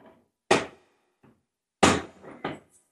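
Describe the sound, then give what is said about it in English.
Heavy metal bolts slam and clank shut on jail doors at Derby Jail in Great Britain, two loud sharp impacts with ringing decay and a faint knock between them, with no talking. “And listen to the bolts go on the doors.”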